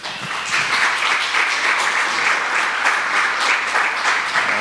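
Thin, half-hearted applause from an audience clapping for Jesus after a prayer, a steady patter of scattered claps that never builds into a loud ovation, heard for several seconds with no one speaking.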